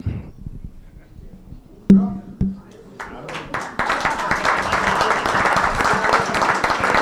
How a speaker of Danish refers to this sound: Jeg synes bare, I skal fortsætte med at klappe af jer selv og af de tre panelister her. Tusind tak for i aften.